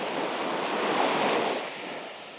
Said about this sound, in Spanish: Estoy al lado del mar, estoy en la orilla del mar, estoy en la playa. Estoy en la playa, chicos,